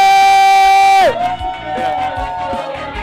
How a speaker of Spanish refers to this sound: pero vamos a recibirlo como Él se merece. Con un fuerte aplauso.